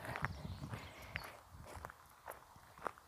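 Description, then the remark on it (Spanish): Footsteps of a person walking at a steady pace, each step a soft crunch repeating roughly every half second, with quiet ambient background and no talking. “Ahora estoy caminando, escuchan el ruido de los pasos”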